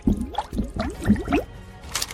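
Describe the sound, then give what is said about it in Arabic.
Bubbly underwater gurgling as air is blown through water, with several quick burbling pops in a loose rhythm, moderately loud, ending in a soft splashy hiss. “هل يمكنك عمل فقاعات تحت الماء؟”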